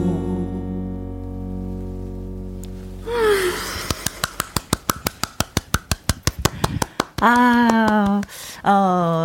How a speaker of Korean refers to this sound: 한 사람만이 박수지만 사실 이 듣는 모든 분들이 박수를 치고 있을 것 같아요.